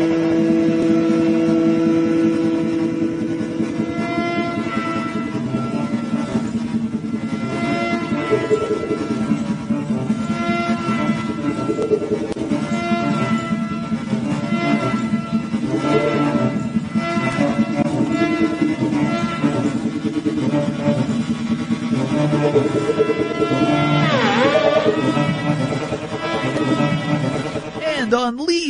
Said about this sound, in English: Um, that's what creates the sound. And, uh, they say that the, the, the inspiration for this instrument came from a motorcycle engine. And I think you're going to understand what they meant when you hear this.